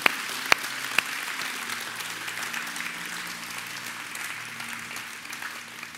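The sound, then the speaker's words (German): Sustained applause from a crowd for all those who made the decision today to confess Jesus Christ as Lord, a dense steady wash of clapping that holds at an even level throughout, opened by a few sharp, louder individual claps at the start. “Und mal fetten Applaus für all diejenigen, die die Entscheidung heute getroffen haben.”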